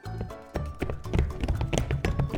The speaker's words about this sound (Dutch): Nou ja, Hop, hop, hop, paardje in galop.